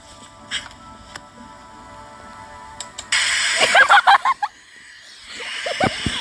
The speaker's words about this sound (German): Auf einmal merkst du, wie der Regen gegen deine Fensterscheibe plätschert.